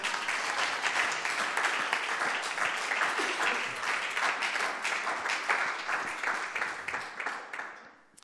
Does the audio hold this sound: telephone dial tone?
no